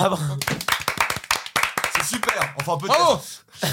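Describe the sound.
Brisk applause from a few people congratulating the prize-winning short film Transylvanie, sharp irregular claps filling the whole stretch, with voices calling and laughing over them, including a rising-and-falling vocal whoop near the end.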